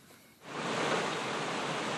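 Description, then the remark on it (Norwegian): Rushing floodwater roars in suddenly after a brief quiet moment, a dense, steady wash of churning water that holds at full strength throughout, with no voices. It is flooding in the small village of Kvam, Nord-Fron municipality, eastern Norway, in May 2013. “Det er lyden av vann som herjer med den lille bygda Kvam i Nord-Fron kommune det er mai 2013, og det er flom flere steder på Østlandet.”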